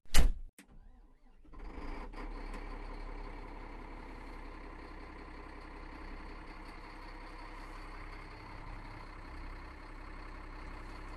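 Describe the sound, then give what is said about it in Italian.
A heavy diesel engine of a snow groomer of about 500 horsepower cranks briefly, catches, and settles into a steady, rumbling idle, its low drone continuing evenly with no talking. “Il gatto si è acceso, la cavalleria è in moto.”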